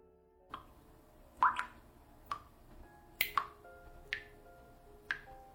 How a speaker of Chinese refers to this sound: 水滴声越来越大